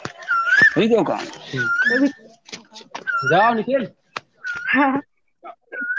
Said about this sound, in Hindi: कहीं पीछे से कोयल की बहुत मधुर आवाज आ रही है बहुत आवाज सुनने के लिए मिली है हाँ बहुत बहुत सुंदर लगा ये कोयल की मीठी मीठी आवाज सुनकर